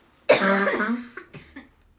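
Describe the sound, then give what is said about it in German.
A harsh coughing fit: one long raspy cough followed by three quicker, weaker coughs trailing off, with no talking. “Boah, Hustanfall ist ja tausend hier.”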